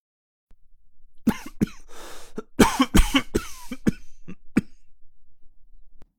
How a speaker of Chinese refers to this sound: 门一关上，欧星辰赶忙回身往里面走了走，这才剧烈的咳嗽了起来。